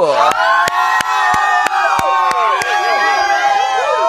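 A loud crowd cheers and whoops in high, sustained voices while about nine sharp claps land in a steady, evenly spaced rhythm underneath, lasting the whole few seconds.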